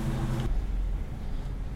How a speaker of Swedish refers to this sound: Nu har Anders åkt iväg med sin Scania.